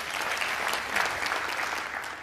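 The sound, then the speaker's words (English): A crowd applauds steadily, a dense wash of many hands clapping at an even level throughout, with no voices standing out. “Applaud.”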